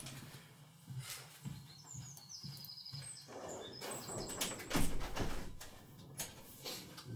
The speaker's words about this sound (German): Ich schließe wirklich mal die Fenstertür, weil dieser Vogel irgendwas gegen mich hat wahrscheinlich und mich die ganze Zeit beleidigt.